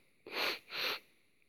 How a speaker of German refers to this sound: Ich muss gerade nochmal die Nase hochziehen, sorry.